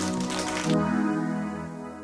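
A short burst of applause from a small group for a quiz, dense crackly clapping for under a second, then cutting off into a steady low humming tone.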